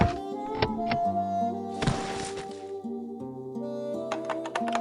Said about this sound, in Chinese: 快听，妈妈这么晚还在练习打字呢。